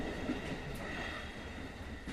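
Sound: train running on rails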